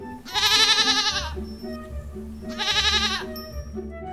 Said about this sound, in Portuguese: E à noite chegou o cabritinho.